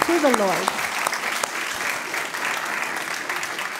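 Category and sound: crowd, audience applauding loudly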